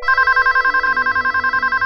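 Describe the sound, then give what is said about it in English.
A cell phone rings loudly with a fast electronic trill, bright pulsing tones repeating rapidly and evenly throughout, with no voices. “As is the norm when having a shower, I soaped up thoroughly just in time for my cell phone to ring.”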